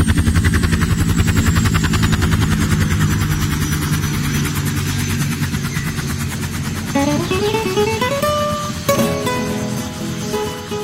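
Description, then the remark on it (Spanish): A large helicopter arriving at a school roars, its rotor blades thumping in a rapid steady chop over a deep engine drone, with whining tones rising in pitch toward the end; no voices. “Ver ese helicóptero inmenso que llegaba a la escuela daba susto.”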